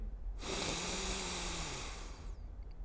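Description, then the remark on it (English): A slow, deep breath drawn in through the nose for a count of three in a breathing exercise demonstration, a steady airy hiss lasting about two seconds, with no talking. “So just as an example, I'm going to breathe in for three.”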